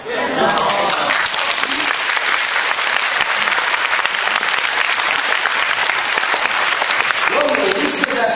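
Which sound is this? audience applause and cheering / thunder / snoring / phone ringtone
audience applause and cheering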